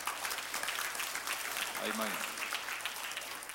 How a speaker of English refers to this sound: And let's keep praying for them, but let's give them some applause for coming too.